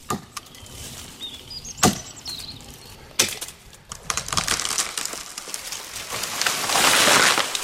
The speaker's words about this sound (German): Der Baum ist gefällt.